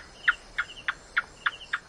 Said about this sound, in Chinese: 你知道这是什么动物的叫声吗？没错，就是壁虎。